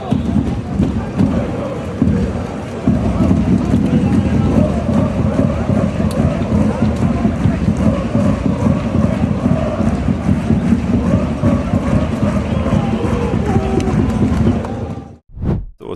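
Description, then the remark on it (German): A large crowd of football fans in a stadium roars and chants continuously after a match, a dense wall of voices celebrating that stays loud for about fifteen seconds before cutting off abruptly. “Und äh, jetzt nehmen wir einfach mal die Atmosphäre ein bisschen mit.”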